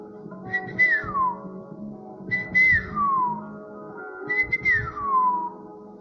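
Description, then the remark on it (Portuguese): A person whistles an imitation of birds singing, a birdlike call three times in a steady rhythm, each a high sustained note sliding down in pitch, with a soft hum of background sound underneath. “Todo dia ele ia para a caverna conversar com os passarinhos. Os passarinhos, um dia o Métier chegou a cantar.”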